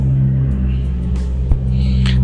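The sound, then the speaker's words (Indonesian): Low, steady rumble of road traffic on a nearby main road, with a car passing very close by, its engine drone filling the background; a brief thump near the middle and faint hissy noise above. “mohon maaf ya terkadang ada suara mobil di sini karena dekat sekali dengan jalan raya”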